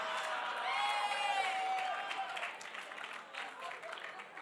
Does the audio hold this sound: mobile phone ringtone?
no